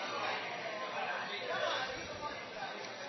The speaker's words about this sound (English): What's all that noise in there? They're uh, so watching a race. Some other race. Yeah. They're watching a race at Aqueduct and screaming.